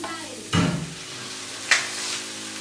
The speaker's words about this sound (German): wirft die Hälfte der Kalamari-Ringe in die Pfanne, schaltet die Hitze runter